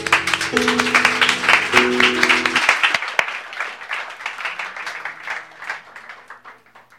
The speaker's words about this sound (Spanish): Y amén. Denle un aplauso al Señor.